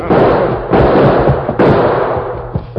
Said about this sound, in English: Then he was relieved to see the Lone Ranger running toward him, his gun spitting lead toward the men across the street.